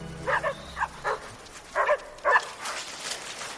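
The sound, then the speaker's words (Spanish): Several dogs bark and yip in short bursts while being fed, a cluster early on and more a second later, followed by softer whimpering and scuffling noises. “da de comer a los perros.”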